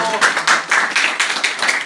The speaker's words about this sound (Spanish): y un fuerte aplauso a todos los papás que están esta mañana con nosotros, por favor. Fuerte aplauso.